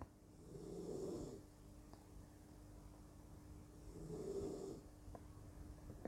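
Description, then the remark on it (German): A small dog breathes heavily and noisily, two slow raspy, snore-like breaths about three seconds apart, with a faint steady hum in the background and no talking. “ein Hündchen äh, atmet im Augenblick wieder ein bisschen stark, aber das gehört dazu.”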